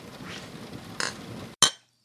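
Glasses of dark and stormy cocktails clink together in a toast with a single bright, ringing strike near the end, preceded by a softer contact and a murmur of background noise, then the ring decays quickly into silence.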